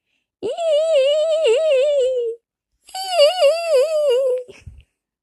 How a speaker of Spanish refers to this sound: Quien hacía esos ruidos extraños era una tonina que había quedado apretada entre dos